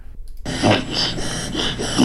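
A dog's reverse sneeze: after a brief silence, a continuous run of harsh, rapid snorting inhalations with rhythmic pulsing, loud, with no voices.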